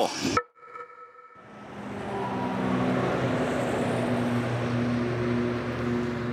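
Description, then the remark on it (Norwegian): Cars thunder past on the busy E18 highway in Kristiansand, Norway, beside a 1930s functionalist building: a loud, steady roar of traffic with deep engine hum that swells in after a brief quiet moment and continues without any voices. “Bilene dundrer forbi på E18.”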